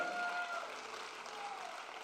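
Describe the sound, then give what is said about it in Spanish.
An audience breaks into steady applause for the Lord, a dense wash of many hands clapping at an even level for about two seconds, with a faint sustained tone briefly ringing above it. “Si alguien lo cree, que le dé un aplauso al Señor.”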